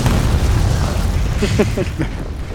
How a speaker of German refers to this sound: Insert Epic Explosion.